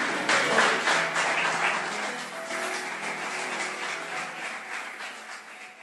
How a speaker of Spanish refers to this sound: Dale un aplauso al rey, aleluya.